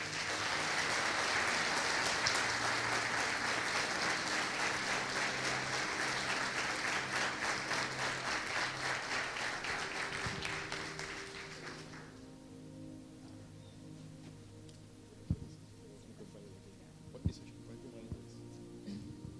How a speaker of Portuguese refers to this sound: Você pode dar uma salva de palmas para receber eles.